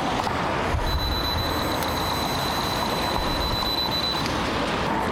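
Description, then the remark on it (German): During an alcohol test, a person blows steadily in one breath into a breathalyzer, a thin, continuous high-pitched electronic tone sounding for about three seconds over the rushing breath before cutting off; the reading is 0.18 milligrams per liter. “Wir machen einen kurzen Alkoholtest okay”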